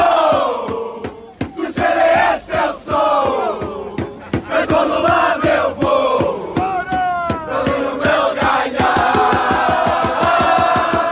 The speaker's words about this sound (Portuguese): liga à televisão e ouve a Assunção e o Nuno Melo e outros a cantar isto